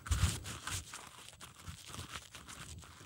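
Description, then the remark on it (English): Someone chews tree bark, with irregular crunching and tearing bites over a few seconds. The sound is fairly quiet, and no one speaks. “So what I'm doing is I'm chewing bark. It's not really all that tasty.”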